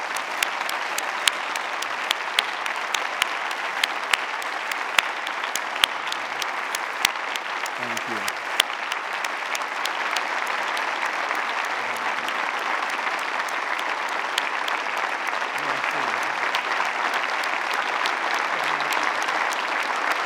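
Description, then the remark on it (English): A standing audience applauds steadily for about twenty seconds in honor of visiting global servants of Christ and to God, a dense, sustained wash of many hands clapping at an even loudness, with sharper individual claps popping out now and then. “I want to invite you to stand in honoring these men and women and giving applause to the God of all nations.”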